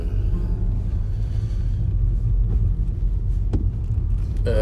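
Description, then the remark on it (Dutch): A car's engine rumbles steadily, a constant low throbbing road noise with a couple of faint clicks near the end, and no one speaking. “opletten hier wat die auto gaat doen.”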